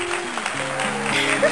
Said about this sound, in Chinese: 众人鼓掌，鼓得不怀好意，新娘笑得心甘如饴。